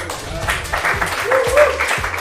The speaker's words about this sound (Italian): Scusate, però per questo ospite serve un applauso.